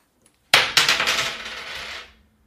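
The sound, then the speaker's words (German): A coin is tossed and drops onto a hard surface with a bright metallic clink, bounces once, then rattles and spins down for over a second before settling into silence. Clear, no voices. “Das hier ist eine Münze.”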